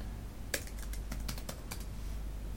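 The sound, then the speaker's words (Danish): Quick, irregular clicks of typing a Facebook friend's name on a computer keyboard, about a dozen keystrokes in a short burst, fairly soft over a low steady hum, with no voices. “Man skal bare skrive navnet på en Facebook-ven.”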